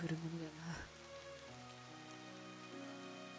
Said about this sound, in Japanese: 都合よく雨が降るものだなあ